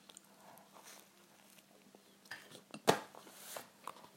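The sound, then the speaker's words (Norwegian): Quiet clinks of cutlery against a plate mixed with soft chewing and mouth sounds, with one sharper scrape near the middle and no talking. “Sorry, jeg spiser og herjer på.”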